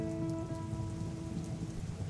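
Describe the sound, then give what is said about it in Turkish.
A steady, dense downpour of heavy rain pattering continuously on a surface, with a constant low rumble underneath and no voices. “Islanırsınız dedi. Sağanak baksanıza.”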